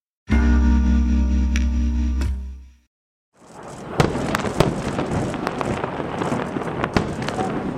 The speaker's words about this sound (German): Das, was Sie da hören, sind Raketen, die von militanten Palästinensern vom Gazastreifen aus Richtung Israel abgefeuert wurden. Hunderte sollen es bereits am Montagabend gewesen sein.